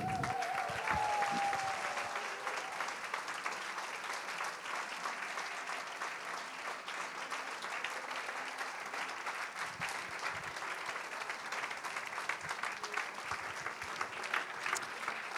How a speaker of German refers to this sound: Und jetzt Applaus ist für euch, für eure Treue.